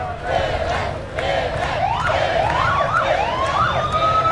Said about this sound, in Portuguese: São duas ruas que dão acesso ao Estádio do Santos pessoas gritam Pelé, Pelé, Pelé, abanam para o caminhão, que lentamente vai se mexendo e carregando o rei do futebol pelas ruas de Santos.